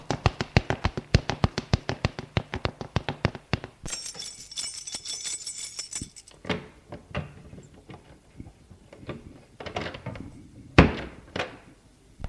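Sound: knocking on a door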